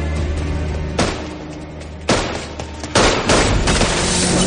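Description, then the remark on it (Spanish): Several sharp gunshots, fired at a police patrol car, crack out over a steady engine-like rumble, with loud bursts around the middle and a heavier volley near the end, forceful. “Thomas dispara a la patrulla.”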